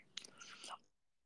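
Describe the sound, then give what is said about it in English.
Moist chewing of homemade banana bread, a short burst of soft smacking mouth noises lasting under a second before fading into quiet. No one speaks. “I'm just munching on some banana bread that I made.”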